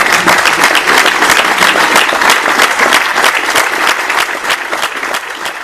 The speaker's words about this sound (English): And on behalf of everyone here, thank you for all your questions and a huge round of applause for Gareth and Darius.